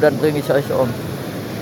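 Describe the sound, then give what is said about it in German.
A steady roar of breaking ocean surf from a rough, wild sea fills the background, continuous and fairly loud, with a man speaking over it briefly at the start before the wash of waves carries on alone. “Man hört das ja im Hintergrund, das ist heute ganz schön wild.”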